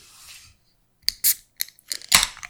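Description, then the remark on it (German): A drink can being opened: a series of sharp clicks and crackles with brief fizzy hisses, ending in a louder burst of hiss. No one speaks. “okay, ich öffne hier mal eine Dose.”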